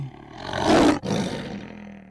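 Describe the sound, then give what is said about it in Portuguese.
A lion roars, a deep, broad bellow that swells to a peak, breaks briefly, then rumbles on in a second sustained growl with no voices around it. “E para convencê-lo, você me verá agora como um leão.”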